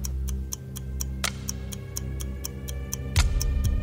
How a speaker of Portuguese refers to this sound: É a trilha sonora. Porque esse filme tem praticamente o filme inteiro um barulhinho de relógio, um tic-tac tocando.